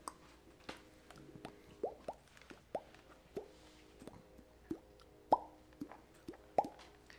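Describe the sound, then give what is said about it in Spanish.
Water drips steadily, roughly a dozen clear plinking drops falling at an uneven pace, each a small resonant plop against a quiet background with no voices. “Desde la naturaleza como desde el primer sonido de un goteo, yo digo que ahí se está generando como que un ritmo, ¿no?”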